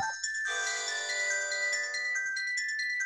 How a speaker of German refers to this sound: Telefon.